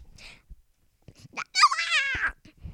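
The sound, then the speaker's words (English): A single drawn-out meow from Poopa the cat, fairly loud, lasting under a second with a slightly falling pitch, preceded by a few soft rustles and clicks amid quiet. “I think Poopa says bye.”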